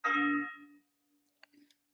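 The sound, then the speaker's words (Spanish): A single loud strike of a bell rung for mass rings out, its bright overtones fading over about a second while a low hum lingers, followed by a few faint clicks. “No mames, no entiendo por qué chingados tanta pinche campanada.”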